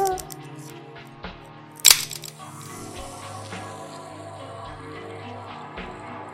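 A soda can tab is lifted just slightly, giving one sharp, loud crack with a brief hiss after it, over a steady low background of tonal sound.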